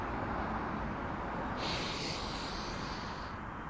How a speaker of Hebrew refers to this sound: שחרור מספר אחד, לנשום. אה, איזה כיף לנשום. עוד פעם. רגע, האוויר עוד יוצא. ויש זמן.